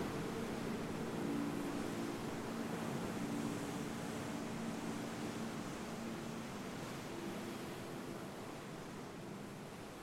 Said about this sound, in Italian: Le onde si frangono sugli scogli in lontananza. Ascolta.